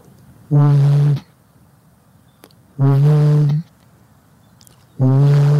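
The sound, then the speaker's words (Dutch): A human voice imitates a Eurasian bittern's booming call: three loud, low, hollow hoots, each lasting under a second, evenly spaced with short quiet gaps between them. “Ja, nee, de stoomfluit van de, de, de roerdomp.”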